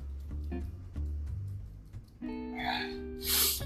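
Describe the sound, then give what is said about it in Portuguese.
A few short nasal grunts and a strained, hummed vocal sound, then a loud, wet snorting sniff as a person draws saline solution into the nose. “Aproveitar pra botar o meu soro aqui, velho.”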